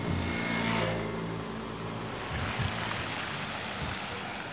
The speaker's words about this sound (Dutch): Dus we steken nu de Geversdijnnoodweg over. we laten nog even wat uh, trams passeren.